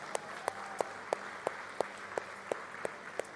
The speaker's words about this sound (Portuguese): E enquanto isso, quero convidar a igreja a dar uma salva de palmas a esses pais.